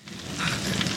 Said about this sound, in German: Glücklicherweise wird das Feuer auf der Hacienda der Alvaros vom Regen gelöscht und das klingt so.